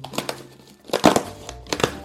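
Crinkling and rustling of packaging as an Amazon parcel containing a 27-inch monitor is cut open with scissors, with a few sharp bursts of plastic crackle and snipping, loudest in the middle, no talking.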